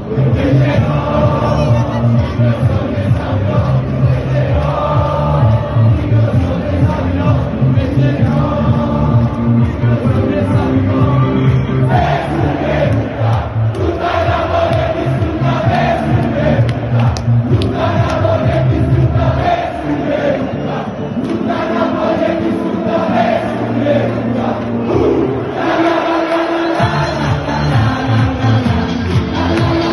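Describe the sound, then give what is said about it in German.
A large football stadium crowd sings and chants together before kickoff of a match against Udinese, loud and sustained for the whole stretch, with rhythmic swells of massed voices, shouts and cheering blending into a dense roar. “Ähm, es war schon sehr laut, es wurde viel mitgesungen.”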